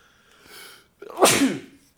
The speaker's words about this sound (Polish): na zdrowie